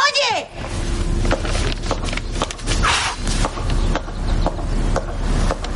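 A boy blows through a telephone: loud, rough gusts of breathy rushing noise that come in repeated surges, with a brief chirpy sweep at the very start.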